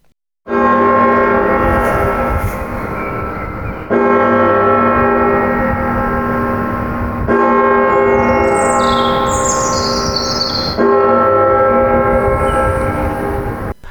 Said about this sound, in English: the clock struck midnight